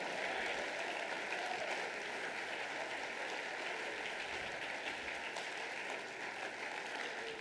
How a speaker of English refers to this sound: Everybody stand and clap your hands to the Lord and give him praise.